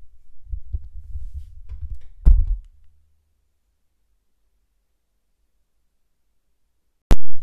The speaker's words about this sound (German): Okay, ich verrühre jetzt nochmal alles. Und dann, ja, hören wir uns wieder.